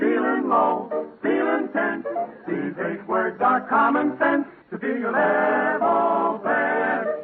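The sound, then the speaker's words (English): A lone man imitates a close-harmony vocal quartet, doing all four voices himself, singing a bouncy, clearly worded tune in short clipped phrases that give way to longer, sustained chords, loud throughout. “my imitation of a quartet. I do all four voices.”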